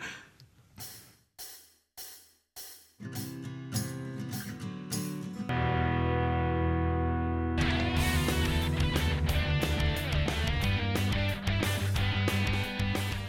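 Instrumental music: a few sharp strummed chords with brief pauses, then a full, loud band swells in and plays steadily with dense sustained harmony and rhythmic hits. No one speaks.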